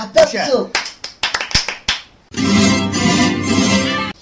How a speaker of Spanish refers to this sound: En verdad hacemos todo esto para aplaudir. Sí, un aplauso.